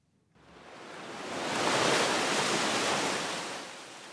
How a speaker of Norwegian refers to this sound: En båt bryter seg fram gjennom isen.